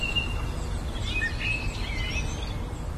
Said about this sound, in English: One songbird that just sung its little heart out in Benmore. It was just the most amazing virtuosic performance from this one bird that sang continuously while we were recording, and I was just amazed.